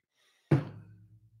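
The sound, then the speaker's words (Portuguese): A cup is set down on a hard surface, making a single solid knock that rings briefly and fades. No one speaks. “Ó, eu pegando esse copo aqui, tá vendo?”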